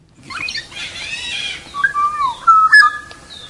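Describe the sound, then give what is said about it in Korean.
A black-naped oriole sings clear, fluty whistled notes that slide and warble, following a brief harsh, scratchy chatter. The song is fairly loud, with no talking. “방송에서는 지금부터 꾀꼬리 소리를 들려드리겠습니다.”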